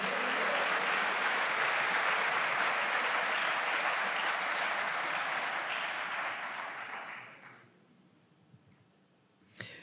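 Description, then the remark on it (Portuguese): An audience claps together to applaud the Lord during a morning church service, a dense, sustained wash of applause that holds steady for about seven seconds, then fades out, leaving near quiet and one brief sharp sound at the end. “Você pode aplaudir o Senhor por isso nessa manhã?”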